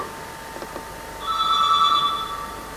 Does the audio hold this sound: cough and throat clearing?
no